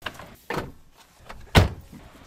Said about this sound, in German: Türe zu, los geht's.